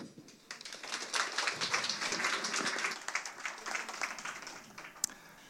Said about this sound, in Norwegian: Så eh, da gir vi ham bare en god applaus.